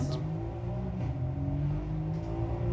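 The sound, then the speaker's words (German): A Mercedes car engine in a racing game drones loudly and steadily, its deep layered tone holding at high revs with slight rises and dips, filling the whole stretch without any voices. “Diese Mercedes haben alle denselben Sound.”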